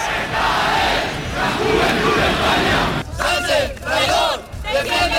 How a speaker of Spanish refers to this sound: Estas eran, estos eran algunos de los gritos que coreaban en la fuente de las batallas granadina.